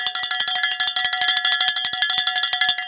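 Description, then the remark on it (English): The final-lap bell at a track race clangs rapidly and continuously, struck over and over in a fast, insistent rhythm, loud with ringing overtones. “Well, in a track race, something happens at the final lap that if it, you didn't already know you were in a race, you are now fully engaged.”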